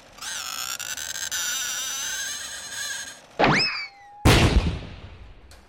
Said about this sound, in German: ein Fuchsschwanz und da wird ein Sägeblatt so gebogen und dann streicht man mit einem Geigenbogen drüber.